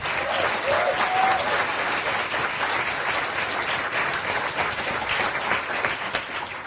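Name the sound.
audience applause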